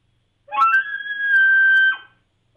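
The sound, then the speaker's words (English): A single elk bugle blown on a game call: a raspy rising note climbs into a long, steady, high-pitched whistle, then drops off abruptly. Loud and alone, with no talking. “bugle a bugle is uh, is is some people call it a whistle”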